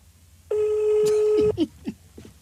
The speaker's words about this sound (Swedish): Upp med, mamma, upp med mammas nummer. Slå det på telefonen.